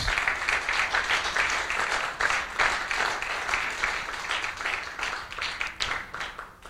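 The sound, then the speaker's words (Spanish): A crowd applauds steadily, many hands clapping in a dense, continuous wash that holds for several seconds with a little cheering mixed in, loud; the audience is applauding God during a sermon. “Dale un aplauso a Dios, hermanos.”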